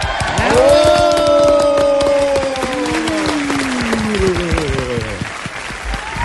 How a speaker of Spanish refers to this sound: Recibamos con un fuerte aplauso al señor Carlos Fernando Galán.